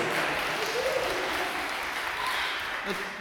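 A crowd claps steadily for a man's 80th birthday after a birthday song, a dense wash of applause that stays fairly even in loudness for a few seconds before easing slightly, with a murmur of voices underneath.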